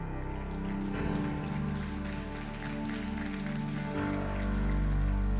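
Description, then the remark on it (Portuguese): An audience applauding the Lord during worship, in a steady, dense patter of many hands, with sustained low musical tones underneath throughout. “Pode aplaudir o Senhor, isso é para Ele.”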